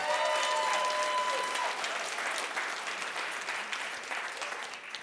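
A crowd claps steadily in sustained applause that fills the whole stretch, dense and fairly loud at first, then gradually thinning and softening toward the end.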